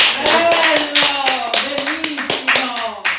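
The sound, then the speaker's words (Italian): Loud applause of sharp, fairly rhythmic hand claps, roughly a dozen in quick succession, used as an applause meter on Radio Germoglio, with voices calling out and talking underneath throughout. “Quindi dopo questo momento applausometro.”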